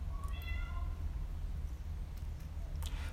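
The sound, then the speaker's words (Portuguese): A cat gives one short, fairly faint meow near the start, heard over a steady low background rumble, followed by a few light clicks and no talking. “Enfim, olha, o mesmo gato.”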